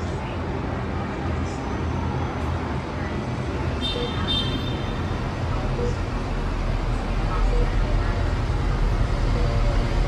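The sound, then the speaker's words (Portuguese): Dense downtown traffic in a big city rumbles steadily, heard through a window, with engines and a low roadway drone filling the scene and faint murmurs of activity above it. “Frase é interrompida pelos sons de uma janela, na região central de uma cidade grande.”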